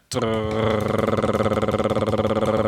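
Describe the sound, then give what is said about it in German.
A voice imitates a drumroll into a microphone before a prize-draw winner is revealed, a loud, sustained rolling trill of rapid, even pulses, starting abruptly and holding steady at a mid pitch for nearly three seconds. “Soll ich mal irgendwie Trommelwirbel mit, mit, mit mach, ans Mikro mach, mach mal einen Trommelwirbel und der, den es jetzt trifft, äh, der ist es.”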